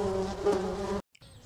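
A steady, droning buzz of many honeybees fills the first second, loud with a rich hum, then cuts off abruptly to near silence before a fainter low hum returns.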